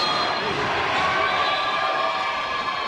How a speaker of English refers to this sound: Blackman crowd going nuts.